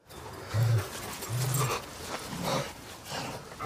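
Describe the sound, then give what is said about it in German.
A dog named Roxy pants and whimpers, breathy huffs coming in a few short bursts with low growly tones, no talking over it. “Roxy heißt das Biest. Und weil auch der Hund Gefallen findet an dem ruhigen, unauffälligen Typen”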